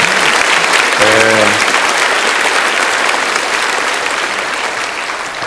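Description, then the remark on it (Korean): A church audience applauds the youth praise team steadily, dense overlapping clapping filling the whole stretch, with a brief voiced shout rising above it early on, then easing off slightly toward the end. “네, 얼마나 매력적이고 아름다운지 우리 박수를 칠까요 말까요?”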